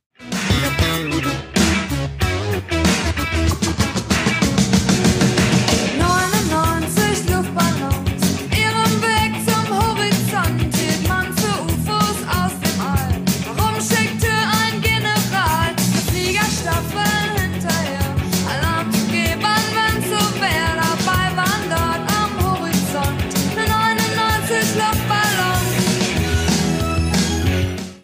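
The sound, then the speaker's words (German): An old full-band song plays on its own for nearly half a minute, dense and steady in loudness, with melodic lines running over a continuous rhythmic backing and no one talking over it. “Da habe ich einen Song aus alter Zeit, der irgendwie dazu passt. Hört mal rein.”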